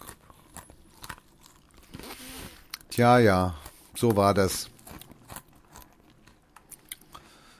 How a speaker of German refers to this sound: isst gerade Salzstangen, falls keiner das hört.